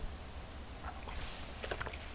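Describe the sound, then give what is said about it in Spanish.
Someone takes a few quick, wet sips of bitter black coffee, soft slurping bursts with a faint airy hiss, then a short cluster of sips near the end. No one speaks. “Así que me voy a dar un buchito amargo.”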